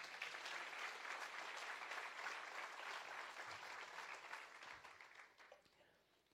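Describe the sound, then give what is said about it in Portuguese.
A church audience applauds Jesus during a morning service, a dense wash of many hands clapping at once that holds strong for several seconds and then gradually tapers off toward the end. “Será que você pode aplaudir Jesus nessa manhã?”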